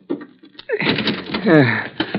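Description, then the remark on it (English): A few quick metallic clicks and rattles as a locked car door handle that won't move is tugged inside a garage, followed by loud, strained grunting while the handle keeps jiggling. “Door handle won't move.”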